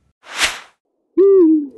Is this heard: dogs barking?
no